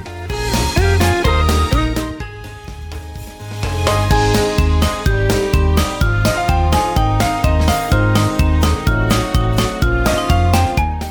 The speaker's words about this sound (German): den Song, der an den Anfang gehört eigentlich schon vom Titel her